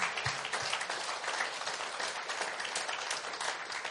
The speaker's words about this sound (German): Haben wir nicht einen himmlischen Papa, der stark ist? Wollen wir ihm noch mal kurzen Applaus geben?